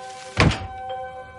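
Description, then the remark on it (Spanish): A door shuts with a single dull, solid thunk, brief, leaving a faint steady hum in the background; in an animation, a paper accordion formed from flying book pages turns into the closing door. “Varios libros vuelan sobre el fondo blanco y desprenden sus hojas, formando un acordeón de papel que se transforma en una puerta que se cierra.”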